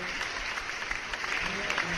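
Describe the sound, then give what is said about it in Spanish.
A recorded cheering and applause effect played by a host to introduce a guest on a low-budget show: dense, steady clapping from a crowd with cheering voices mixed in, loud and continuous for the full two seconds without a break. “este, para seguir platicando y para que entiendan les voy a presentar, nomás que voy a poner aquí las porras, a mi invitado de esta noche,”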